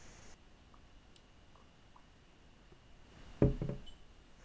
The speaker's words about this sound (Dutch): Ik eh, eh, ga nog even een slokje nemen. Ik ook.